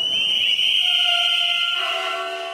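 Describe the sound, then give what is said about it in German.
A loud, continuous blare of shrill trill whistles blown by hundreds of railway employees under the large display board of the Zurich main station hall, with train drivers sounding their horns, sustained without pause for about a minute and shifting pitch partway through, with no voices heard. “Punkt 13 Uhr blasen die anwesenden sbw angestellten unter der großen Anzeigetafel der Zürcher Bahnhofshalle in ihre Trillerpfeifen.”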